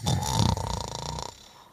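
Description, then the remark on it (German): A human voice mimics a crocodile's loud, rough snore, a rattling, throaty drone lasting just over a second before cutting off abruptly into silence. “schnarcht auch laut und grunzt zwischendurch vor sich hin und bewegt sich mal und aber es bewegt sich nicht von der Stelle”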